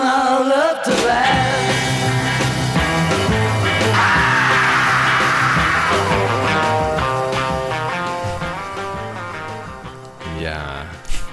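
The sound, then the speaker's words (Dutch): A loud rock song plays in a mono mix, with a heavy bass line and raw, shouted vocals over dense guitars. It runs steadily and breaks off abruptly near the end. “het lijkt alsof in de tweede veel meer eh, bas zit in de monoversie”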